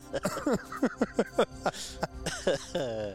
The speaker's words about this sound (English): I think my lung is halfway up my throat right now. Okay, I was oh, coughing man.